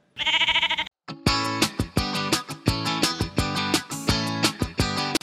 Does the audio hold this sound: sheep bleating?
yes